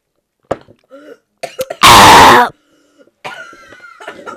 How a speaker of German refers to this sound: Ich hab mich verschluckt. Erstmal Hustanfall. Ich hab mich ähm, so verschluckt.